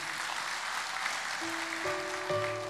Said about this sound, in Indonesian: Berikan tepuk tangan buat Tuhan Yesus.